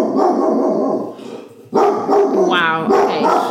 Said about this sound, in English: he is really, really, really into barking right now. Okay, sorry about that.